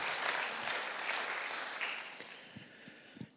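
A crowd applauds with dense, steady clapping that gradually thins out, leaving a few scattered individual claps at the end.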